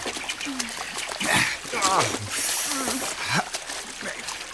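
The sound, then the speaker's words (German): Continuous splashing and sloshing of water, with bursts of louder splashes as people wade into cold Beer Spray Lake to swim to the other shore. A few short vocal sounds and gasps are mixed in. “Wir sollten keine Zeit verlieren und gleich ans andere Ufer schwimmen.”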